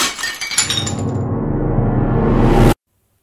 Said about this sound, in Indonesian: Luna lalu menggeser tangannya hingga membuat piring yang diberikan neneknya terjatuh.